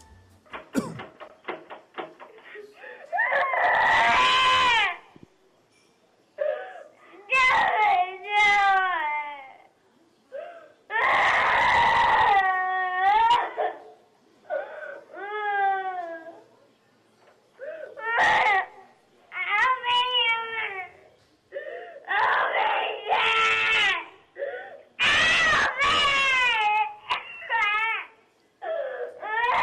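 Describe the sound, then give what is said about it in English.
A small child cries and screams in repeated loud bursts at a front door, having grabbed the door handle and shaking it, with the porch light out. High wavering wails slide up and down in pitch, broken by harsher shrieks and brief gasping pauses, with no other voices. “it is a small child that has grabbed the handle of the door and shaking it.”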